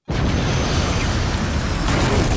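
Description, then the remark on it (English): A loud explosion sound effect bursts in abruptly and rolls on as a dense, heavy roar with deep rumble, holding steady without fading. No voices are heard. “Make sure you add in more explosions.”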